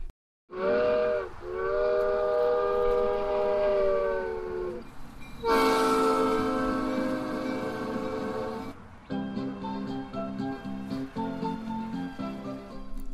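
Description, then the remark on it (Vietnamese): A small two-car Alice Train at the Alice House sounds its horn in long sustained tonal blasts, loud, with a shift in pitch partway through, followed by rhythmic clattering of the cars rolling along the track that circles the building. “Đi dọc theo con đường ray tàu lửa bao quanh tòa nhà là sẽ thấy chiếc tàu lửa Alice có hai toa rất dễ thương đang chờ sẵn.”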